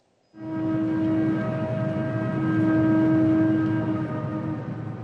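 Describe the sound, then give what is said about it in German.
A very long freight train loaded with iron ore, in the desert of Mauritania, blares its horn suddenly and holds a long, steady chord over the heavy rumble and clatter of the passing train, loud for several seconds. “Irgendwann taucht in der Wüste Mauretaniens ein ewig langer Zug auf. Geladen hat er Eisenerz, eines der wenigen Reichtümer dieses armen Landes.”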